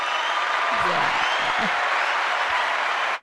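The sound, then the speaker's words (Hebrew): Steady, dense applause from a group welcoming Mom, loud and sustained for about three seconds before stopping abruptly, with a few faint voices murmuring underneath. “אז השאלה הראשונה שלנו זה, קבלו קודם את אימא במחיאות כפיים חזקות.”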